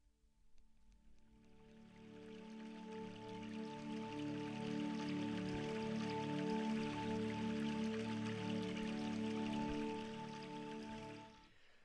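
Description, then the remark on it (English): Calm ambient ocean-themed music from a meditation app, with sustained, layered drone tones over a soft, steady wash of watery noise, swelling in gently, holding evenly for about ten seconds, then fading out. No voices. “So I don't know if you'd call it music. It's like these nice tones.”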